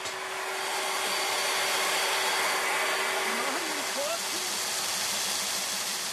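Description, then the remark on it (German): A water-cooled core drill, operated by trainees, grinds steadily through a 12 cm thick wall to make an opening for house supply lines, a loud continuous motor whine over a broad rushing hiss, with faint voices briefly audible underneath. “Die Schüler sollen ein Loch in die 12 cm dicke Wand bohren.”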